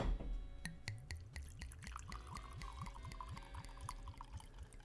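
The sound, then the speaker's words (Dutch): Wine pours steadily into a glass, with a rapid series of glugging pulses and a slowly rising tone as it fills. No one speaks. “Nou, daar komt hij, het glas, daar ga ik schenken.”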